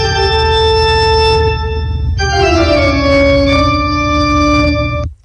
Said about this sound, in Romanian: Deci să zicem că dai Bach Asta originalul Bach sună așa